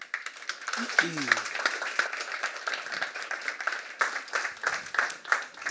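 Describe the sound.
Steady applause from an audience, dense overlapping claps for several seconds at moderate loudness, with a brief voice or whoop rising near the start.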